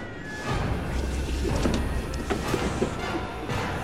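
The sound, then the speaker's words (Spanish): A chaotic scuffle in a house as Nazi officers force their way in: a steady rumbling commotion, punctuated by several sharp crashes and dull thuds scattered irregularly throughout, moderately loud, with no clear voices. “Se escucharon peleas, gritos y forcejeos.”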